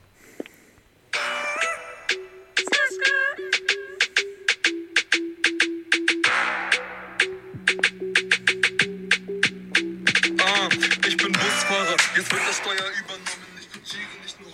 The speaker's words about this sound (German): So beginnt der Song und wir können ihn am Schluss der Sendung auf jeden Fall nochmal ganz spielen.